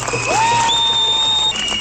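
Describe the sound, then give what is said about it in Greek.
A crowd applauds at an anti-vaccine rally in Athens, Greece, with dense, steady clapping that fills the whole moment, while a sustained, rising whistle-like tone rings on top of the noise. “Ένα μεγάλο χειροκρότημα για όλους εμάς που αντέχουμε και δεν έχουμε εμβολιαστεί”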